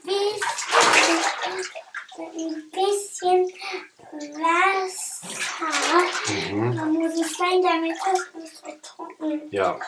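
Water sloshes and splashes in a filled bathtub in intermittent bursts beneath almost continuous chatter from a child and an adult.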